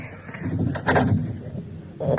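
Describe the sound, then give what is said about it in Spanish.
A heavy door is dragged open with a deep, rumbling scrape and a couple of dull thuds, fairly loud, with no voices. “Ah, ya está aquí la puerta del sospechado es muy pesada.”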